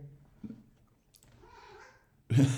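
A cat gives one drawn-out meow that rises and falls in pitch, fairly faint, after a brief soft click, and then a sudden loud, noisy burst cuts in at the end.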